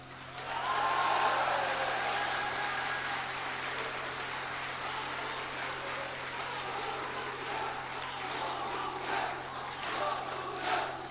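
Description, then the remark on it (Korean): A crowd claps steadily and densely for about eleven seconds, a continuous crackling wash of many hands that never breaks, with faint voices blurred underneath, interrupting a presidential candidate's speech. “연설 방해하는 박수는 사실합니다.”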